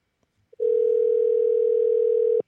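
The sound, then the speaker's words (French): A telephone ringback tone on an outgoing call to someone in Spain: one steady, loud electronic beep lasting under two seconds, heard clearly on its own with no talking. “Bah ça sonne déjà.”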